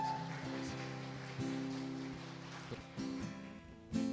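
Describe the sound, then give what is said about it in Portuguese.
An audience claps steadily for the worship band in a dense, even wash of applause, while sustained keyboard chords ring underneath and shift a few times. “Vamos aplaudir o pessoal do louvor aqui, maravilhoso.”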